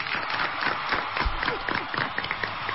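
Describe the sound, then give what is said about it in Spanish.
A crowd applauds Blossom Brides steadily for a few seconds, a dense wash of many hands clapping with scattered sharper claps standing out. No one speaks over it. “Un aplauso para Blossom Brides.”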